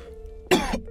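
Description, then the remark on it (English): A single harsh cough bursts out after a moment of low hum, followed by a rough throat-clearing rasp that trails off. “fuck, my fucking cough is killing me.”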